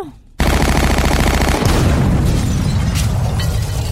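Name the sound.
automatic weapon gunfire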